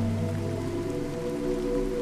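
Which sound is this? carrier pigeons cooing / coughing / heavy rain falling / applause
heavy rain falling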